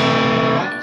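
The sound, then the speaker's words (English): A loud, distorted electric guitar chord rings out alone for under a second, its clashing notes sounding out of tune, before starting to fade. “As … yeah, … like, said, if your guitar sounds like this,”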